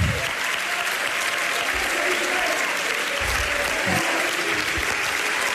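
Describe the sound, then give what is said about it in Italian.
A large audience applauds steadily at a closing ceremony in Venice, a dense wash of clapping hands that stays loud and unbroken from start to finish. “L'applauso.”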